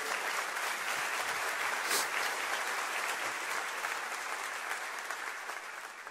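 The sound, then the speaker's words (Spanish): Sustained audience applause offered to the King of Kings, a dense wash of many hands clapping at a steady level, fading slightly toward the end, with no voices standing out. “Un aplauso al Rey de Reyes.”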